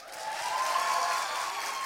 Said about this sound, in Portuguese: E quando você acabar de falar, quem sabe até eles vão bater umas palmas.